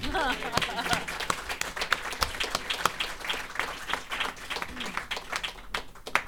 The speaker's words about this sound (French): Ben oui, vous pouvez m'applaudir, j'adore ça.